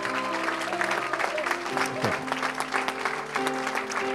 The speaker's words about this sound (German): Komm, wir geben Jesus einen Applaus. Amen.